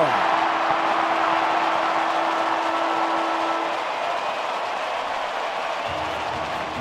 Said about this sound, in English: Siren about to sound. You'll hear the Sydney roar.